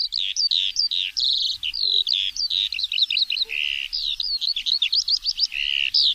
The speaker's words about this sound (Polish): One są skromnie ubarwione, bo one zalecają się piosenką. E, I tym śpiewakiem takim otwartych przestrzeni jest Skowronek.